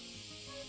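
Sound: cicadas chirping outside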